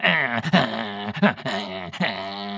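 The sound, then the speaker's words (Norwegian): Someone mimics two dogs barking at each other with their voice: a loud string of strained, tonal yaps and growly bursts, broken by a few brief pauses. “og holder på hver sin hund, som, som bare halser mot hverandre.”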